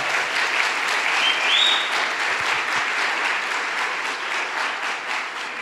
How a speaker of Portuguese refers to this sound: Nós oramos, sonhamos, trabalhamos muito e essa semana, ah, graças a Deus, a Red chegou à marca de mil voluntários. Você pode aplaudir a Deus por isso?